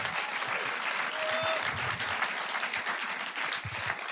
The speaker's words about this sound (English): Yeah, another round of applause.